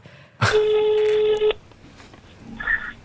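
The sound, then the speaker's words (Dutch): Telephone tones: a loud, steady electronic tone lasting about a second, then a pause and a shorter, fainter tone, like a call being dialed and starting to ring. No one speaks. “Dat ehm, werd jou bekendgemaakt met een telefoontje.”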